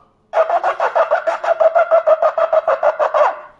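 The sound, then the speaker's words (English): A shofar sounds truah notes, a rapid string of short staccato blasts, roughly eighteen quick notes in an even, fluttering rhythm, loud with no voices. “that's what we call shvarim. And then you have the Torah.”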